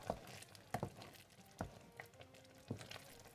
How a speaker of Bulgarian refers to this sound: И го оставям така да къкри на слаб огън за 10 на минутки. При мен те вече минаха, с лъжичка внимателно правя нещо като гнезда в тигана.